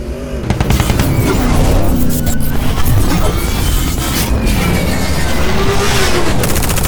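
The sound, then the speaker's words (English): A loud, chaotic audio drama battle scene: sharp bursts of gunfire and booming blasts crackle over a constant roar of engines, with no pause in the din throughout. “You want me to stop shooting? Out? I'm out! Reload!”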